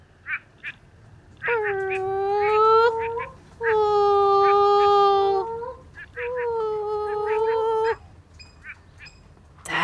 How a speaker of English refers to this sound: Oh, we better try the moaning frog too. You ready?